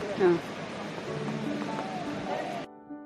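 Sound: ocean waves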